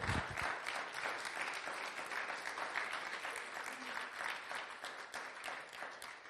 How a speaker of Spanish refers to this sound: Fuerte aplauso a nuestro Dios.